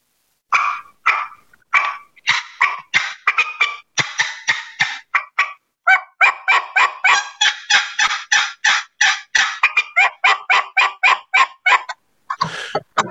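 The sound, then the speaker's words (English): Rapid, sharp turkey calls made on a box call and a mouth call, a loud series of yelps and clucking cuts in quick irregular bursts, the two calls answering back and forth, with no talking. “But what he's doing is he was he he was cutting and yelping on his mouth call, and then also cutting and yelping on his box call, kind of answering back”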